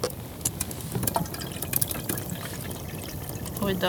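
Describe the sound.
Boiled coffee pours steadily from an old coffee pot into a cup, a continuous splashing trickle with small drips, while people talk quietly.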